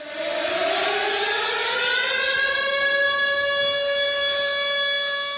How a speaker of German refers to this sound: So klingt ein Luftalarm bei uns zu Hause, sagt die Schülerin und hält ihr Handy hoch.